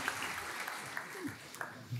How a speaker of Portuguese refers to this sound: Uma salva de palmas ao Atos, o nosso tecladista. Foi fraca a palma, tudo bem.